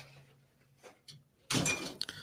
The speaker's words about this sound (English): Oh, look at that. The guy that's supposed to be in Florida knocking shit down.